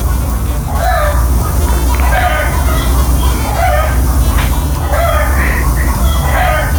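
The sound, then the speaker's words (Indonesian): Animal sounds, chickens clucking and calling over and over in loud, repeated bursts, with a steady noisy background running underneath the whole time. “itu kan ada ada ayam aduh romantis ya ada suara-suara hewan gitu aduh.”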